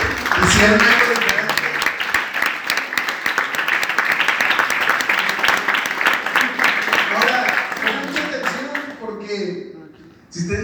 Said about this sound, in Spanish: Vamos a dar un aplauso a los que